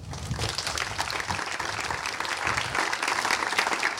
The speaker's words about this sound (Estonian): et teeme suure aplausi.